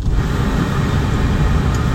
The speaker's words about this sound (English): Um, let me hold on, y'all. Give me two seconds so I can um let these windows defrost off a little bit more.